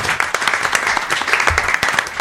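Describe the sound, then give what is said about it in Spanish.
Sustained audience applause, a dense continuous patter of many hands clapping at a steady moderate loudness throughout, with no voices standing out. “Aplauso sostenido.”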